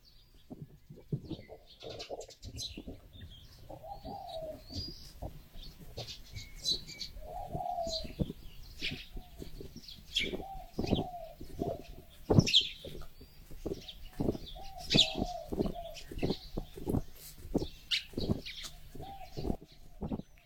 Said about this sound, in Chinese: 现在是金门的早上六点半，我在六点左右醒过来，然后听到很多外面的鸟叫啊、虫鸣。